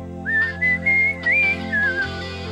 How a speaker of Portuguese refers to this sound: Aí tem um assobiozinho, Tenho né? Tem o direito ao assobio.